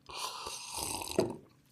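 An airy slurp of a drink lasting under two seconds, with a wet gurgle near the end before it trails off. No one speaks.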